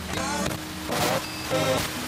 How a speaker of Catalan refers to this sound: Això són interferències, moltes interferències venen de les ciutats, de les indústries, però una part d'aquesta interferència potser aquesta, vés a saber. Aquesta és grossa, eh?